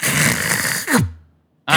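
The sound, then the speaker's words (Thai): A voice mimics a dial-up modem's connecting screech, a dense, noisy hiss that ends in a falling groan-like tone, a brief silence, then another burst of rough noise. “มาอินเทอร์เน็ตเสร็จแล้ว เออนี่คือเสียงสวรรค์ในอดีต เสียงนี้เนี่ยเดี๋ยวนี้เดี๋ยวห่างไปสิปีนี่งงไออีอ๋อนี่คืออะไรเคยได้ยินเสียงอีอ๋อเสียงสวรรค์ไหม”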